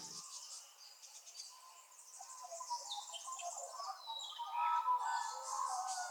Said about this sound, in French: Et pour la phase d'exercice, je vais tout simplement vous proposer d'écouter le chant des oiseaux et d'observer les émotions qu'ils évoquent en vous.